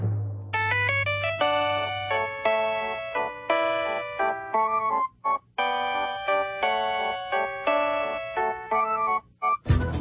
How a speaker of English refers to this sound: And now, this week's number one ringtone. Number one. For the third week in a row. Waltz of the Flowers.